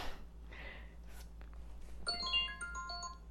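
A phone alarm set for 8:46 starts chiming after a couple of seconds of quiet room noise, playing a bright, melodic run of electronic tones at moderate volume.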